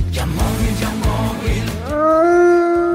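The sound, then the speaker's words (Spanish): A wolf lets out a long, loud howl that swoops upward and then holds steady, coming in after a few seconds of busy, rhythmic low rumbling. “Ya estamos en Halloween y los lobos acechan.”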